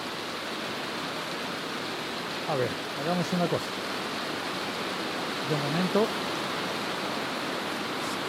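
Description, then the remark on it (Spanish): Heavy rain mixed with frozen drops pours down outside a man's house, flooding its entrance, in a steady, dense hiss that fills the whole clip, while the man speaks briefly in bursts, partly drowned by the downpour. “Bueno, esta es una nota para contarte, si se puede, si me lo permite la lluvia.”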